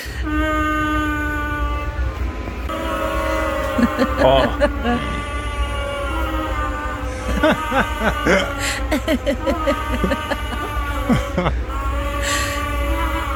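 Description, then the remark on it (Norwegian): Several baby otters snore together, their overlapping squeaky, whistling breaths forming a steady chorus of layered tones, with occasional snuffly bursts, continuous throughout. “Da er de altså, flerstemt. Altså, de snorker, de snorker oppå hverandre.”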